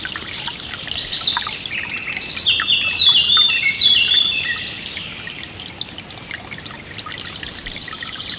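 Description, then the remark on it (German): Birds sing and chirp steadily in the open, several bright calls overlapping, loudest in the middle, over a soft continuous background hiss like trickling water. “Ich höre das Singen der Vögel”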